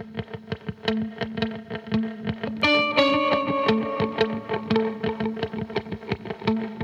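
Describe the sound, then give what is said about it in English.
A distorted electric guitar plays a little melody for a song's guitar part: a quick, steady run of repeated picked notes, with a ringing sustained chord swelling in partway through, processed with effects and no voices. “I have this idea for electric guitar, guitar part, and he started playing this like little melody thing”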